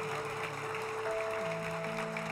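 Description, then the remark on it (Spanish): Audience applause: a dense, steady wash of many hands clapping for the full length, with sustained held musical tones playing underneath. “Por favor, un aplauso a esta preciosa familia.”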